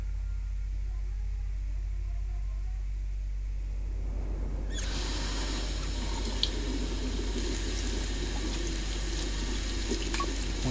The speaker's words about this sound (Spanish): se las arregló, lavándose las manos y salpicándose suavemente la cara con agua.